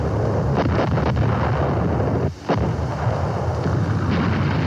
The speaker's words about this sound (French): dans son Allemagne où le bruit des fanfares a disparu depuis longtemps sous le bruit des canons.